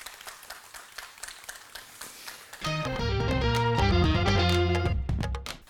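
A brief burst of live audience applause, a dense patter of clapping, gives way after a couple of seconds to a loud, bright musical jingle with sustained tones.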